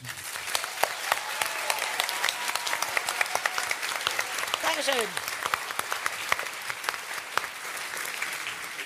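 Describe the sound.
An audience at a radio play event applauds steadily for the full length, a dense wash of many hands clapping with scattered sharper claps, and a brief voice or cheer rising partway through.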